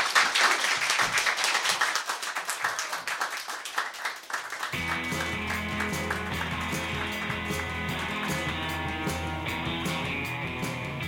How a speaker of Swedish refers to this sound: Tack Hälsa honom en varm applåd.